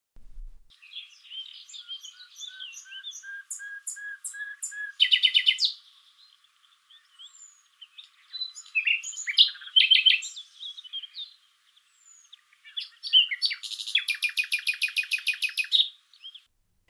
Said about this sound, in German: Wie der Name bereits verrät, ist die Nachtigall am stärksten in der Nacht gesanglich aktiv, zwischen 2 und 4 Uhr morgens. Das ist die Zeit, in der die Weibchen ihre höchste Aktivität haben.